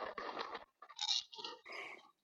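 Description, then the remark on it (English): A treat ball toy with a voice inside it, with little treats put in it, rattles with a crunchy, scraping burst, then gives out a few short, warbling, voice-like squawks in quick succession, fairly loud with brief gaps and no one talking. “So it's, it's got a kind of voice inside it, has it? I didn't realise this when I got it and you put little treats in it”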